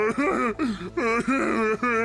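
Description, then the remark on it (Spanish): A man cries loudly on a witness stand, with drawn-out wailing sobs in about four strained bursts separated by brief catches of breath. “Ahí está llorando en el estrado.”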